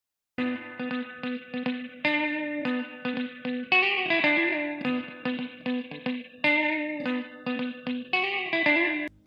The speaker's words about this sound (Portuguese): Agora vocês vão ficar, após a vinheta, com a frase de todos.